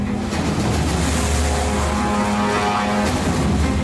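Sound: motorboat engine running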